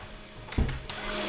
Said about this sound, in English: Oh, is the blender too noisy? I'll turn it off. One sec. Sorry about that.